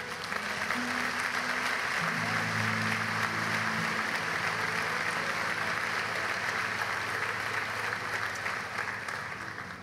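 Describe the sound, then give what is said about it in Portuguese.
A church audience applauds for Jesus steadily for the full length, dense clapping, with a few low sustained tones, like held organ or keyboard notes, sounding underneath early on. “Dê um aplauso a Jesus.”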